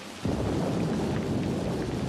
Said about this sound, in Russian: И тут разразилась гроза.